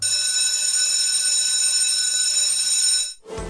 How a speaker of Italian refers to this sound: Allora, questa invece è eh, non una campanella della scuola, ma una campanella dei pompieri. Ah. Però devo dire che questa non è un'emergenza, ma è un'esercitazione. Ok. Stanno facendo i pompieri eh, della stazione di eh, Udine.